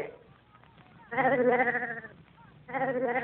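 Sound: sheep bleating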